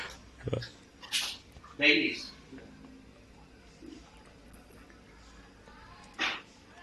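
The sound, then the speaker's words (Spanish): A restless dog that has been lying underneath for a while keeps letting out short whimpers and breathy, panting snorts in scattered bursts, with quiet shuffling between them and a muffled voice now and then. “Perdona, es que voy a sacar un momento a mi perro porque. Tranquilo. No para, ¿eh?”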